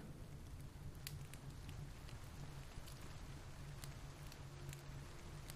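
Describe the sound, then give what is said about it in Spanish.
Steady rain patters continuously outside while a fire crackles with sharp, scattered pops over a low, constant rumble. No voices, just an even, soothing wash of sound throughout. “El sonido del fuego junto con el sonido de la lluvia te hacen sentir tranquilo, muy relajado y contemplativo.”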